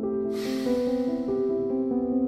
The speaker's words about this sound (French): Prends le temps d'une respiration. Inspire. Expire.